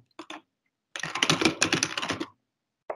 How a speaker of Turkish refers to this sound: Nasıl klavye sesiydi lan? 1-2 saniye sürdü.